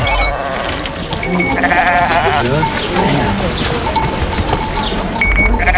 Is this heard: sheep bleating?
yes